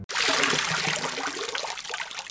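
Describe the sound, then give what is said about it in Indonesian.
Water pours and splashes steadily for about two seconds, fairly loud, a continuous rushing spill with no voices, as a mother pours water on her child to wake him for school. “Mama siram kamu sama argo depan biar kamu bangun.”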